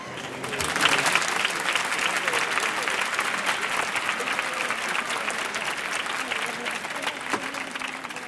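A street crowd applauds steadily and loudly for several seconds after a solo saeta, with scattered shouts of olé rising over the dense, continuous clapping.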